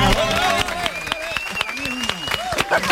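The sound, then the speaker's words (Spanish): A group gives itself a round of applause, a steady patter of many hands clapping at moderate loudness, with voices calling out and cheering over the claps. “Vamos a darnos un aplauso hasta estamos...”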